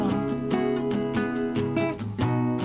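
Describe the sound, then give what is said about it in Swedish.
A self-recorded song plays fairly loud, with a sung melody over sustained instruments and a steady, regular drum beat that continues throughout the short stretch. “en ny låt jag har spelat in”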